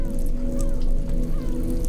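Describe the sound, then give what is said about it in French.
A dense chorus of seabird calls on the islands of the Calanques in the Mediterranean, loud and continuous, with overlapping honking, squawking cries and a few rising wails standing out over a steady low rumble. “Les îles des Calanques, de Maïre au Frioul en passant par Riou, Plane ou Jarre, abritent des oiseaux marins, ceux qui vivent en haute mer, que l'on appelle des oiseaux pélagiques, et les côtiers, qui eux ne s'aventurent pas au grand large.”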